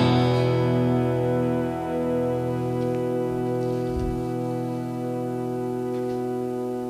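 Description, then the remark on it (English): Guitar played through a Mel9 effects pedal, producing a steady, held chord of rich organ-like tones that sustains for the full seven seconds, with a brief low thump midway and no talking. “That was the Mel 9 pedal I was using.”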